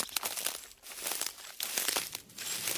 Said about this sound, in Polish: Tak oto przemierzamy ścieżki leśne i gdzieś tam pod butami Chrupie nam to runo leśne.